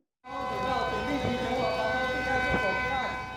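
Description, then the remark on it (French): Air raid sirens wail across the city of Taipei, Taiwan, during a Monday air raid drill, a sustained, droning tone with overlapping pitches that starts abruptly and holds at a loud, constant level throughout. “Les sirènes de raid aérien ont retenti dans toute la ville de Taipei.”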